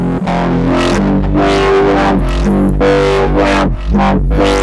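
A demonstration of the Fireball distortion effect: loud, buzzy, heavily overdriven tones with thick low notes and fizzy upper harmonics, sustained continuously with a series of swelling strummed attacks, no voices.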